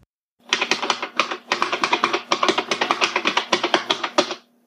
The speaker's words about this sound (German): Und was ihr da gehört habt, sind Buckling Spring Switches. Ja, sie sind clicky und membrane bzw. kapazitive Switches, aber die Switches passen trotzdem gut hier rein. Die Switches gibt es in vielen IBM Keyboards